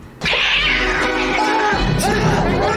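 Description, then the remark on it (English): A cat in a film scene lets out a loud, drawn-out yowl while attacking people, a harsh, wavering caterwaul sustained for a few seconds with a brief break before a second strained cry. “I don't know how they got this tech, this cat to attack people like it's doing, but that cat does this several times in the movie.”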